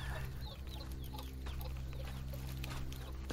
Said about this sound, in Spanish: no hay nadie. Nomás las aves y una cabra afuera.